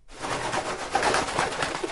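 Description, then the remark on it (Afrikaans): A busy flurry of wings as a finch and its companions fly past, beating steadily for two seconds, with a few faint chirps and calls mixed into the rustling. “Skielik vlieg daar iets verby sy kop.”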